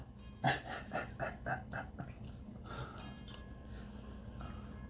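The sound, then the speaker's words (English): A cat laps milk from a metal bowl: a quick, steady run of wet licks with small metallic clinks, then softer, scattered sounds trailing off with no talking. “So, if you're hearing a ding ding ding in the background, that would be my cat currently drinking milk out of a metal bowl.”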